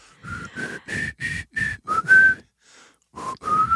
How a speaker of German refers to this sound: Weißt du was? Ich, ich kann was pfeifen. Oh ja. Bin nicht so ein guter Pfeifer.